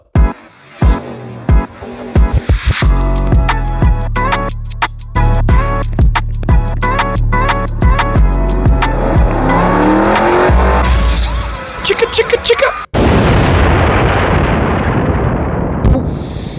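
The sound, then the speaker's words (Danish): A short, loud produced intro jingle with punchy rhythmic hits and a deep bass line, layered with revving, skidding and crash-like effects, ending in a rushing noisy burst. No one speaks. “Og vi har fået en jingle, og den skal vi lige høre, tror jeg.”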